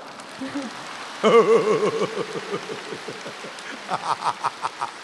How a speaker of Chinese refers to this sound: 鼓掌。